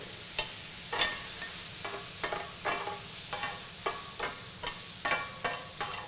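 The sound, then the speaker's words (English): Mushrooms sizzle on a grill as they release their water and start to cook, with a steady, hissing crackle, broken by a dozen or so sharp clicks and scrapes at a loose, uneven rhythm. Nobody speaks. “I can tell that they're releasing their water, so they're starting to cook.”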